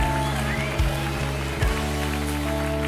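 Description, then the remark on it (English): An audience claps steadily in praise to God in a dense, crackling wash of applause, with a low sustained musical drone underneath and a couple of deeper thumps. “Come on, give God a good hand clap and a shout of praise.”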